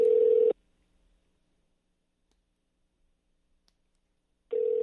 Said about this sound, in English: Are we one for three? This is not gonna work if nobody's picking up the phone.